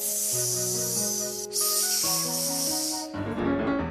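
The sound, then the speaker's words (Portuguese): A voice imitates a mouse snoring with a long, airy hiss that breaks briefly midway, loud, over a soft background of sustained musical tones. “Para de ressonar! Estás a fazer com que eu não consiga dormir”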